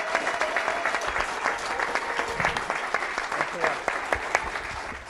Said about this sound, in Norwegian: så gi de en god applaus